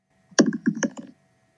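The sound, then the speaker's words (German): A brief digital dice-roll effect from an app: a quick synthetic clatter of four or five sharp clicks tumbling over under a second, moderately loud and heard alone with no talking. “wir streiten uns gerade schon vor der Aufnahme über die Würfel-App, die wir verwenden sollen”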